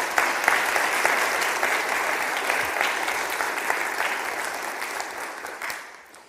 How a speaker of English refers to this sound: So if you want to give a round of applause to the veterans, that'd be great.